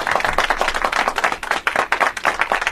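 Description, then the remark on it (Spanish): A burst of applause from a small group for two people who shared a pizza, dense overlapping claps with a steady, crackling texture that holds at a fairly loud level for a few seconds. “verdad, hay que darle un aplauso, hay que darle un aplauso”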